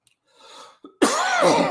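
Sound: coughing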